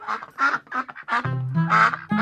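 A duck quacks loudly, a quick run of six or seven nasal quacks, the later ones drawn out into longer, buzzier calls, with no voices.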